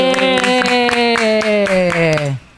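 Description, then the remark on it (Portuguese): Steady rhythmic hand claps, about three or four per second, ring out beneath a loud, long sustained voice whose pitch slowly slides downward before everything cuts off. “Não merece até uma salva de palmas.”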